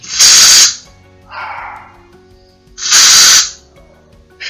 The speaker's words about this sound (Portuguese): ele tem um ouvido tão sensível que ele pode ouvir quando eu aciono o meu spray de inseticida. E ele late desesperado, como eu vou mostrar agora. Ou repetir a experiência colocando o spray um pouquinho mais longe da janela.